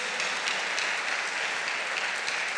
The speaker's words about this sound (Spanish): Si es un aplauso para el Señor, déselo. Fuerte. Aleluya. Gloria a Dios.